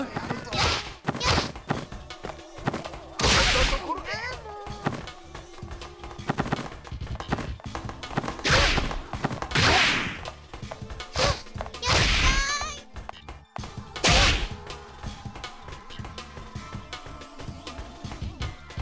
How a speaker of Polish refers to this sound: A, nie, to, to są nasze kroki i oczywiście udało nam się przejść pierwszy level.